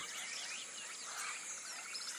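A steady wash of high chirping and trilling, a chorus of African birds singing together in sunny Senegal among blooming citrus trees, with no single voice standing out, fairly soft and continuous throughout with no talking.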